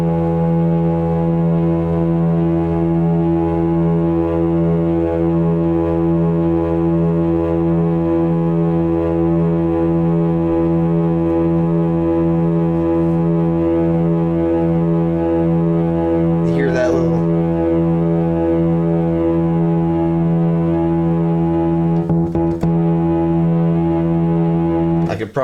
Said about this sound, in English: So that's that full on, and now we'll bring in oscillator two. start over here like the other one with a triangle and notice once I get into the square, you get this weird little. You'll probably hear it better than I can describe it.